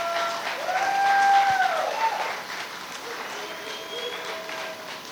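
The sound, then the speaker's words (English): A crowd gives itself a round of applause, clapping steadily for several seconds, dense clapping that swells early and then eases slightly, with a few sliding whistles cutting through the noise. “For real, give yourselves a round of applause.”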